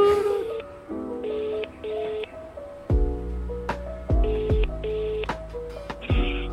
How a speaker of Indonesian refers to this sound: kita akan call beberapa orang kita tanya orang iya pertama kita telepon